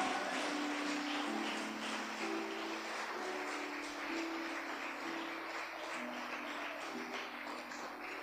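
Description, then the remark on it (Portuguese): An audience applauds for Jesus steadily for several seconds during a church service, a dense, even wash of clapping with scattered low voices and faint sustained tones underneath. “Pode aplaudir a Jesus.”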